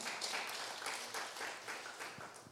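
An audience applauds together, a dense, steady wash of many hands clapping that holds at an even level for a few seconds with no voices on top.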